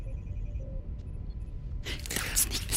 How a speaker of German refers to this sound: Tür auf.